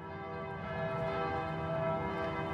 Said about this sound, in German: … sagt, worauf es beim Handglockenspiel ankommt. Noten lesen und zählen. Zählen ist eigentlich die größte Aufgabe.